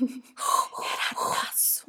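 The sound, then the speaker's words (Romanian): A dog, Oscar, breathes heavily in a few loud, airy puffs after asking to come into the house and being let in, while a person speaks briefly over it. “Da, o să auziți acum respirația lui Vader în ceafă.”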